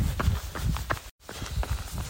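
Quick, rhythmic footfalls of someone running outdoors at around minus 3 to minus 4 degrees with no wind, a steady patter of dull thuds with scuffing, briefly cut off by a moment of silence midway before the pace resumes.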